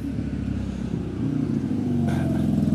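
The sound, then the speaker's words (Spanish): A motorcycle engine drones steadily outside, its low buzzing note growing slightly louder and rougher toward the end as it passes, with no talking over it. “no saquéis, joder, la moto.”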